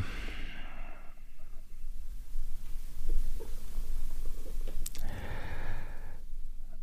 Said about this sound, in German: Oh, Mann, die Katze, ey, ich schmeiß dich raus, ey.